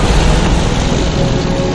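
A car drives along a road, a steady, loud rumble of engine and tyre noise with a broad hiss on top, holding constant throughout with no voices.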